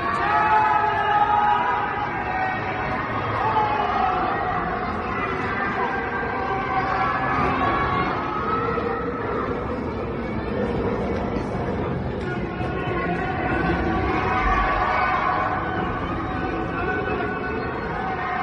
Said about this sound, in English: Shanghai is enforcing its 25 million residents into lockdown for three weeks, prompting citizens to scream from their apartments in protest.